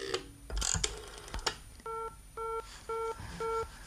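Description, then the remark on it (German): An old rotary telephone dial whirs and clicks, then four evenly spaced beeps of a busy signal sound in steady rhythm, clear, with no voices. “Ach, was soll denn das? Immer besetzt.”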